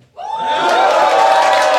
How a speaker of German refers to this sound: ich, will, eigentlich, dass ihr wieder jubelt, dass die Leute hören kann, dass, dass wir tatsächlich bei einer Live-Show waren. Also, kann, kannst ihr laut schreien, bitte?